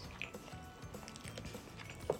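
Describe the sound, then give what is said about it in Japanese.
Soft chewing of slightly yellow garlic bacon rice cooked with butter and sprinkled with pepper, a steady run of moist crunches and mouth sounds with a couple of slightly louder bites near the end, no talking. “うん、まあそれは後で、うん、いただきます”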